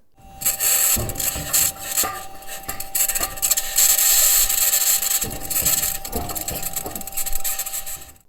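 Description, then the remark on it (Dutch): Continuous grinding, scraping noise with a harsh metallic edge from the turning wheels of a rover, rolling steadily for several seconds, punctuated by irregular clanks and knocks, loud with no voices; the scratching sound's cause is unknown. “als je dat metaalachtige hoort, dat zijn de wielen van de rover.”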